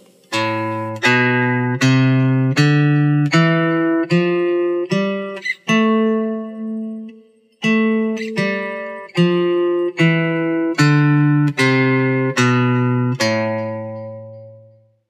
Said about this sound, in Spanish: Y ahora vamos a construir la escala de la menor natural. hacemos lo siguiente. La si, do, re, mi, fa, sol y la. Escuchemos